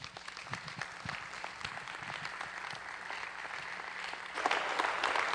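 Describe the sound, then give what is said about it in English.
An audience at an Only Believe gathering applauds to welcome a guest pastor about to preach: a dense, steady wash of many hands clapping for several seconds, swelling slightly louder toward the end, with no voices over it. “And uh, I just want to encourage you tonight, if you would, let's give a warm welcome and only believe welcome to our guest tonight, Pastor Tim Ost, as he brings forth the word.”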